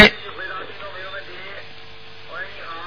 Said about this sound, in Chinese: 你把收音机要关掉，否则你有回音的。